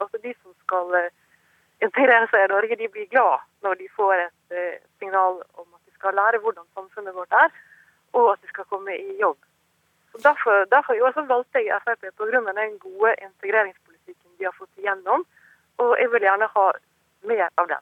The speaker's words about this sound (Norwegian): Beklager den noe dårlige telefonlinjen til eh, tegneserieskaper ….